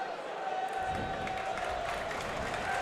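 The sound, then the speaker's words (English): A stadium crowd at a Wrexham match against Eastleigh applauds and cheers a yellow card shown to Wrexham's Cleworth for grabbing and pulling down Hill. A dense, steady wash of clapping and voices swells in after a moment and holds at an even, fairly loud level to the end. “I don't think I've ever heard a Wrexham yellow card get applauded so much.”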